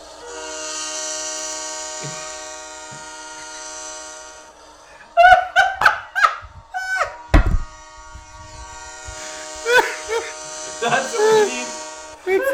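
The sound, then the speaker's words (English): A loud, steady diesel train horn sound effect blares for several seconds, then voices and laughter break in briefly before the horn sounds again, long and sustained. “We have to look at Google a diesel engine sound effect. Diesel horn sound effect.”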